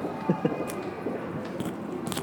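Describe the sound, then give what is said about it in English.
Wet chewing and crunchy bites of people eating in a mall, a couple of sharper crunches early on, then steady mouth noises with soft clicks over a low, busy background. “Jadi tadi ada suara the sound are, of water. Ya, yeah, the sound of people yeah. eating yeah, something.”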